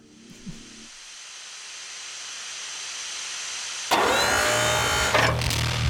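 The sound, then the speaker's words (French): A dark ambient noise piece: a steady, slowly swelling hiss that grows louder, then abruptly jumps into a denser, harsher wash of noise with a low rumbling layer beneath. No voices. “Alors, j'allais dire de la musique, mais en fait, non, c'est juste du dark ambient, donc c'est du bruit.”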